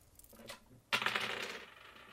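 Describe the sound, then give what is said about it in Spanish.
Dice are rolled: a few light taps, then a sudden burst of bright clattering as they tumble and rattle across a hard surface before gradually settling. No one speaks. “Yo te dije que no quiero jugar más a los dados”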